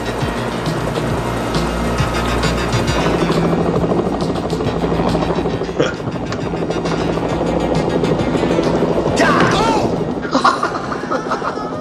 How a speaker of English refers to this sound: The helicopter's just floating in midair.